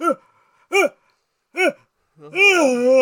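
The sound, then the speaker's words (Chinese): A voice imitates a middle-aged female customer's loud, exaggerated yawn: three short, clipped vocal whoops, then one long, drawn-out yawning cry that rises and falls in pitch. “他就是在打哈欠，女生哦，一个阿姨。然后她打哈欠的时候，我真的我那时候在监台监东西，然后我就听到这样，”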